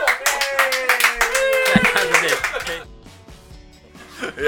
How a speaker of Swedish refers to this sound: Tack så mycket. Applåder.